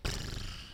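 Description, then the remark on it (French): A film projector running in a cinema, a steady mechanical whir with a low rumble and broad hiss. It is heard briefly, with no voices. “ça, c'est le bruit du projecteur.”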